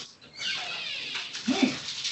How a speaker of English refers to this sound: What's Ryan doing? Is he doing the washing up?